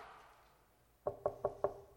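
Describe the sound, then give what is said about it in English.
After a quiet stretch, four firm knocks on a closed office door land in a quick, evenly spaced series, clear, with nothing else sounding around them. “And, you know, when that door is closed, you know, when, I'm, when I'm studying or when I'm with someone, and, you know, you, you want to come in, you know, the protocol is knock.”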